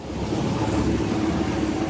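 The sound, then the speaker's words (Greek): A steady engine drone with a low rumble and churning from a rescue motorboat in floodwater in the village of Koskina, Karditsa, Greece, evacuating an elderly woman from her house; continuous and fairly loud throughout with no voices. “Ξαναπήγε βόλτα με βάρκα.”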